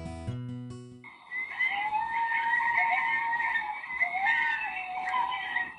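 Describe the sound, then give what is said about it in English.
A chorus of North American coyotes howls and yips together, their high wavering cries overlapping steadily for several seconds, following a brief tonal snippet at the very start. “Have you ever heard a coyote sing?”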